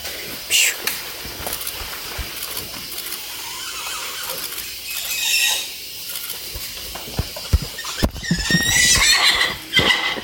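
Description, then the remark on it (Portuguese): High, wavering squeals from muriqui monkeys in a forest in Brazil, much like a horse's whinny, come in a few separate bursts, the longest and loudest near the end, over a soft, rustling forest background. “ao som da mata, com direito a pássaros, vento, rio e, claro, o som do muriqui, que mais parece um relinchar.”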